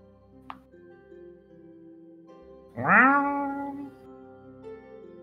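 A single loud meow from a black cat on a bed rises and then slides down in pitch over about a second, heard against a steady low background drone, with a brief faint click just before it.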